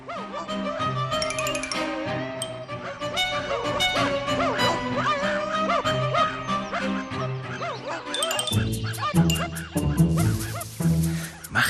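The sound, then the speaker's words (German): A pack of hunting dogs barks and yelps in overlapping bursts, loud, with the clamour growing sharper and more frantic near the end. No one speaks. “Indes kam ein Jäger mit vier Hunden daher.”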